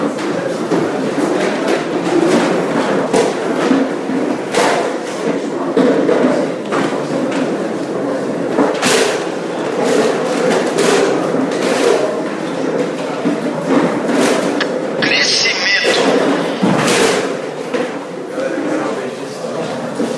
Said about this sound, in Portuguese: Vamos empurrar as cadeiras para trás.